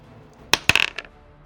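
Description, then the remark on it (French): Dice clatter onto a hard table during a tabletop role-playing game, rolling a 13: a sharp first strike, then a quick burst of rattling bounces that settle into a final small tap, fairly loud. “qu'elle a des dés 13, il fait 13, donc moins 2.”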